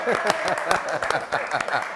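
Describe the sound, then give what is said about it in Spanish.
A small group claps steadily for a couple of seconds in Miami, the sharp claps coming in a quick, uneven rhythm with voices calling out beneath them. “¡Vamos, Messi! ¡Aplauso!”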